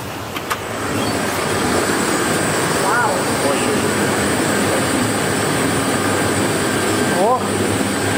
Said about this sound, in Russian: здесь видим, это такие мельницы, э, меланжеры они называются, которые делают э, что-то по типу ореховой пасты, но из шоколада. Угу. Да, да, да. То есть, э, по сути, здесь шоколад готовится.